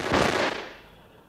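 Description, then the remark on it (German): A quick, loud volley of gunshots bursts out as FBI agents posted outside a cinema shoot an armed man. The sharp cracks run together before trailing off into a fading echo. No one speaks. “Doch bevor er abdrücken konnte, trafen ihn die Schüsse der FBI-Beamten”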